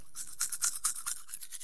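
Quick, rhythmic scrubbing of a toothbrush against teeth, bristly strokes repeating several times in a short burst, fairly soft, with no voices.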